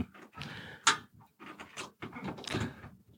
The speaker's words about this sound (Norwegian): Det er lyden av Håkon som ikke vet hvordan en stikkontakt fungerer